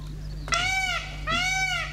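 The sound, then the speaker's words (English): A peacock at Dunstable Downs gives two loud, wailing calls in quick succession, each a rising-then-falling cry, over a steady low background hum. “That, my friends, is the sound of a peacock.”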